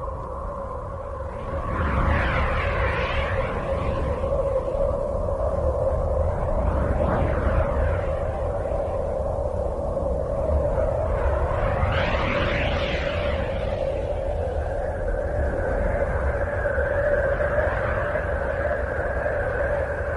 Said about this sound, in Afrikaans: Dan ook die klanke van Uranus